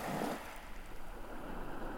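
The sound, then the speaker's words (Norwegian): Air pressed out of submerged moss and roots by a person resting their weight on their left shoe rises in bubbles about a square centimetre across: a steady fizzing, gurgling wash of water noise with a slightly fuller swell at the start and no voices. “Lyden du nå skal få høre, det er luft som blir pressa ut og opp av mose og røtter. Og boblene er ikke mer enn en drøy kvadratcentimeter i diameter.”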